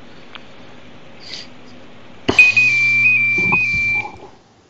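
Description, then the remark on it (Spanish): A Nokia mobile phone ringtone plays after a brief quiet stretch: a bright, electronic beeping melody with small pitch steps, fairly loud, lasting about two seconds before quickly fading. “A ver si podemos recordar los famosos sonidos de, los ringtones de, de los Nokia.”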